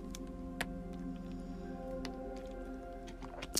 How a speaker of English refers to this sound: First, as always, I have to try- take a drink of water.